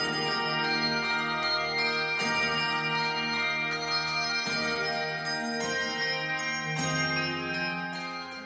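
A handbell ensemble plays a steady, ringing piece, with clusters of bells struck together every second or two and their bright tones sustaining and overlapping, close and full, with no voices.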